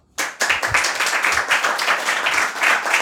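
A crowd applauds with dense, steady clapping that starts abruptly and stays loud and sustained for about three seconds, a bright wash of many hands with no talking over it.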